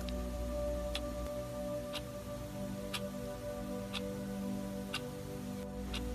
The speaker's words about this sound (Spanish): Puedes observar los detalles dorados en el reloj y el sonido del tic-tac comienza a inundar tus oídos en este momento.